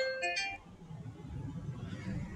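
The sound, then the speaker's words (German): An alarm clock rings briefly with a few quick, bright electronic beeps in a short melodic burst, then stops, leaving a low rumbling background hum. “so mein Wecker, dein Wecker”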